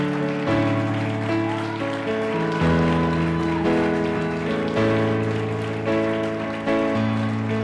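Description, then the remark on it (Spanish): An audience at a church service claps steadily as applause to the Lord, a dense, continuous patter of many hands layered over sustained keyboard or organ chords that shift every couple of seconds, with no voices heard. “Démosle un aplauso al Señor en esta hora.”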